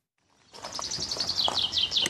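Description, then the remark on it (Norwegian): Birds singing, a dense run of bright, rapid chirps and trills that fades in and then continues steadily without pause. No voices, just birdsong over a faint background hiss. “Et bysentrum der man hører fuglene synge og privatbiler er bannlyst.”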